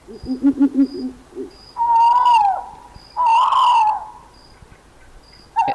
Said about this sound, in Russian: это все филин? Это все филин, особенно вот этот звук. Особенно ночью в лесу. Вы знаете, это действительно Гарри Поттер какой-то. Это очень страшно.